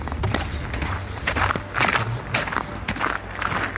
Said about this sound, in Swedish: Nu ska vi hitta skoterspåret här då. Nu ska vi gå i snö mot först sågen och sen det hus där bröderna bodde 2004.